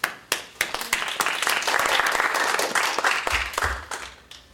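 An audience breaks into steady applause welcoming a speaker before his talk, many hands clapping in a dense, even patter that swells quickly, holds for a few seconds, then thins out into scattered claps as it fades.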